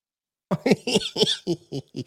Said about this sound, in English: Excuse me, by the way, I do have a cough, so I'll either mute my microphone to cough or I'll just let rip and you can all burst your eardrums if you're listening on headphones.